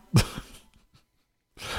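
A young man gives a single sharp cough, followed by a few softer trailing bursts, then a brief silence before another breathy, rough burst of sound at the end.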